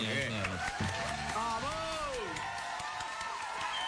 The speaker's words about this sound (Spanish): Y a ellos, con este aplauso, los recibimos.